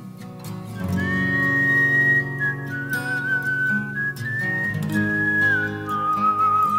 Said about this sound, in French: ça célèbre intro ah. sifflée.